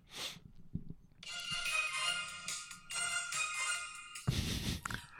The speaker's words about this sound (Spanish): Ese es mi tono celular.